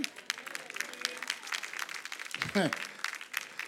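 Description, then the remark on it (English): An audience claps during a speaker's testimony, in a steady, dense patter of many hands, with a brief burst of voice rising partway through above the applause. “I know you give teppy clapping because it's my testimony.”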